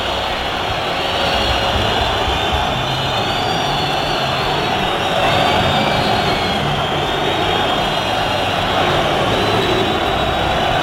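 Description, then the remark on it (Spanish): A large crowd at the Ramón Sánchez Pijuán stadium on a Saturday evening roars and chants "Pepe Castro dimisión", calling for Pepe Castro's resignation: a dense, steady wall of many voices that stays loud throughout, with faint rising shouts breaking through now and then. “Gritos de fondo de Pepe Castro dimisión, Pepe Castro dimisión.”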